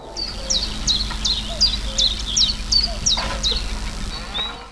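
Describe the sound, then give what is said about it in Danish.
Outdoor farmland ambience at Sebyl, just south of the Danish-German border near Tønder: a blackbird repeats bright, high chirps in a steady series while faint, low calls of a cuckoo and lowing cows sound. “Der høres kørs mugen, og der høres også solsorte sang og Gøens Kuggen her ved Sebyl, lige syd for den dansk-tyske grænse, ikke så langt fra Tønder,”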